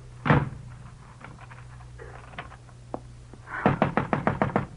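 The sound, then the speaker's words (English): A single heavy thump, a pause with faint tapping, then a rapid burst of about eight loud, insistent knocks on a locked door, with no voices. “Priam, unlock this door.”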